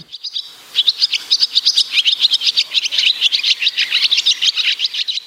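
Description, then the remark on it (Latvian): A barn swallow twitters in a rapid, unbroken stream of high chirps and warbles, fairly loud, with no other sounds around it. “Tā bija bezdelīgā, jā, kas pie mums ir zināms un gaidīts putniņš, kurš savu mājiņu ceļ pie cilvēku mājām.”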